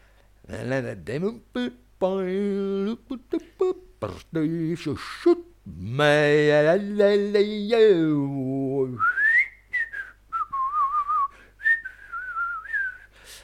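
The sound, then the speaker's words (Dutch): A person vocalizes a wandering melody, then whistles a loose, made-up tune of gliding notes, imitating the casual whistling of a man who clipped a hedge with shears all day. “En dat was balsem voor mij, omdat het mengde met de vogeltjes, omdat het eh, zo natuurlijk en spontaan was.”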